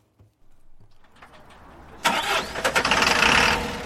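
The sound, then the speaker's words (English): A large diesel bus engine cranks with a rough, grinding whir, then catches at around two seconds and roars loudly into a throbbing idle, with no voices; the bus is ready for a 185-mile journey back to Tralee. “The bus is ready for the long journey back to Tralee, 185 miles, over four hours if there are no stops.”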